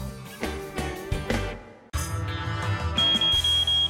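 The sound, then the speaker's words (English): A defective smoke detector's high, shrill electronic chirp comes in near the end, repeating in quick pulses over loud, busy music that plays throughout. “Seems like a defective detector.”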